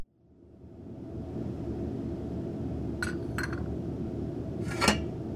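Teacups clink against each other three times, two quick light chinks followed by a slightly louder ring, over a steady low rumble with no one speaking.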